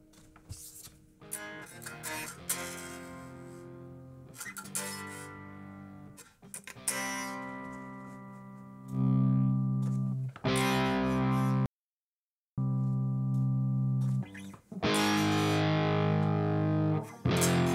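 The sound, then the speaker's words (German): A distorted electric guitar plays sustained, overdriven chords and notes, the gritty saturation growing thicker and louder as the gain rises, with a brief silent gap before a final loud, fuzzy chord. “Also, Sounddesign übrigens mit der ist ja ganz viel über Gain. Ne, wenn ich hier mein Gain aufdrehe oder abdrehe, kriege ich ja einen ganz anderen Sound.”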